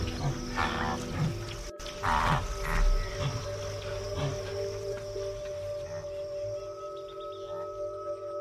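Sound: elephants vocalizing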